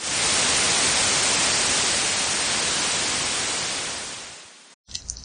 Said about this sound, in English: What, what's that sound? What's that? like paper. Like a like a condom oh. wrapper. huh? I'm playing with paper.